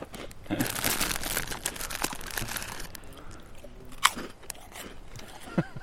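Crunching and chewing of crisp food right against the microphone, outdoors in the sun in Turramurra, with dense crackly bites in the first half and a few sharper crunches later, no talking.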